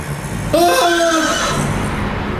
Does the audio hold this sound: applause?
no